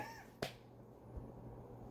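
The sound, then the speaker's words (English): A person does a short mimicked cat meow, a quick rising-and-falling mew at the very start, followed by a sharp click and then quiet background noise. “See, I would meow to be different.”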